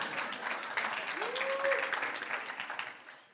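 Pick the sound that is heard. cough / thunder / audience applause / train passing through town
audience applause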